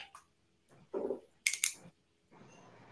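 Quiet handling noises as a pen is picked up to note a question on a small slip of paper, with a few small clicks and a sharp bright tap, followed by a soft steady scratching of writing on paper. No one speaks.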